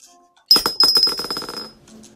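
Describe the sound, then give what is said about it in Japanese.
Dice rattle and tumble across a hard surface in a quick burst of sharp clicks that bounce rapidly and fade out over about a second, with no talking. “では、サイコロの出た目で、うん。真夏の習慣を語りますよ。”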